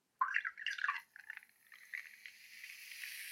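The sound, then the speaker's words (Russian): Cider pours into a glass, starting with a splashy gurgle, then settling into a steady fizzing hiss of bubbles as the glass fills. No one speaks. “Давай начнем со звуков наливающегося сидра.”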